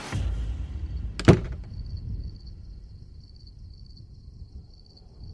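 A bedroom door is shut once by a man who has forcibly pulled a woman into the bedroom. It closes with a sharp thud and a brief rattle, followed by a quiet room where faint, steady insect chirping continues in the background.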